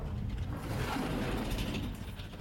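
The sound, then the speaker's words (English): A lift door closing on either side of a briefcase thrust between the doors and sliding back open, heard as a steady, moderately loud mechanical whirring and grinding that runs without a break, with no sharp bump standing out and no voices. “I throw my arm out and the door closes on either side of my briefcase, bouncing back open for me to slip through.”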